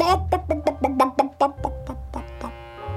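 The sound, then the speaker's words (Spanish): A voice imitates a hen clucking: about eight quick, rhythmic bawk-like bursts, trailing into a longer drawn-out tone over a low background hum. “Había una gallina que hacía”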